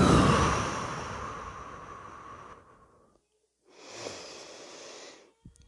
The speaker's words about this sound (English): Okay, here I am coming to you again with another. Uh, breathing exercise.